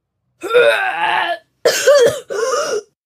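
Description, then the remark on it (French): A voice acts out retching from seasickness aboard a boat in three strained, gagging heaves, a long one followed by two shorter bursts, fairly loud with brief pauses between. “Le jet puissant éclaboussa ses pattes et celles de ses deux camarades.”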